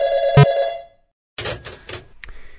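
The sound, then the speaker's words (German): A loud telephone bell rings once with a bright metallic clang that fades, followed after a short silence by several clattering, rattling bursts. “Das Klingelt hier gerade.”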